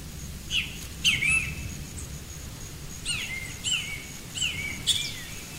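A great kiskadee sings in the forest, repeating short, bright phrases in a few bursts, clear over a steady low rumble of a bamboo grove swaying in the wind.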